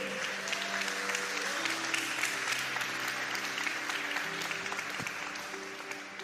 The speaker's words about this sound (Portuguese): Você pode glorificar ao Senhor? Você pode dar um aplauso ao nosso Deus?